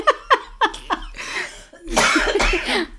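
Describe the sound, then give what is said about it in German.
A woman, the speaker's mother, coughs four times in quick, evenly spaced bursts, followed by a longer, harsher stretch of raspy coughing and breathy hacking, clear; she has had the cough for ages and does not have Covid. “Äh, meine Mama hat übrigens kein Corona, sie hat Nein. Husten schon seit Ewigkeiten.”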